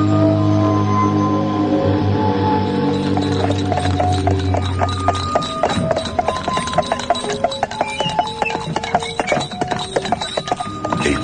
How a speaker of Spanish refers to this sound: cochero detenía los caballos en el patio de un amplio castillo en ruinas